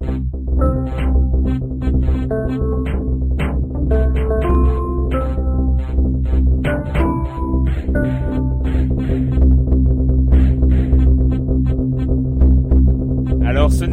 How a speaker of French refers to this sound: C'est pas la bande son, euh, c'est pas la, bande originale, hein, c'est le son du jeu lui-même. Et il s'agit du jeu 1000 amps. Euh, Puzzle Game